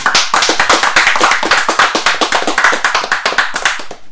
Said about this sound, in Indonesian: tepuk tangan.